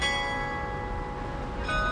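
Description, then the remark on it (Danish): A carillon of 49 huge bells at the top of the 60-metre-tall town hall tower on Frederiksberg, Copenhagen, plays an evening hymn: rich, overlapping tones hum and sustain steadily, with a fresh bell strike near the end; no one speaks. “På de 49 enorme klokker, der hænger i toppen af det 60 meter høje Rådhustårn på Frederiksberg.”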